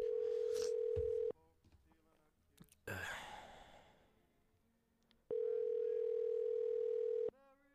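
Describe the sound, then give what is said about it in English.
A steady electronic ringback tone sounds twice, each ring lasting over a second with a pause between, while a person sighs and breathes audibly during the gap. “says it's calling.”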